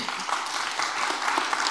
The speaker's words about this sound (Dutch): Ik wil graag hartelijk applaus nogmaals voor